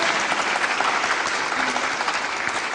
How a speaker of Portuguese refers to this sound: Palmas para ela.